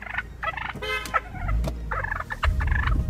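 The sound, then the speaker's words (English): A gigantic wild turkey in a Washington, D.C. neighborhood gobbles loudly in several rapid, warbling bursts, a rattling mid-pitched call repeated over a few seconds against a low rumbling background. “Gigantic turkey just kind of like jumps up towards my face to kind of like almost claws me in the face.”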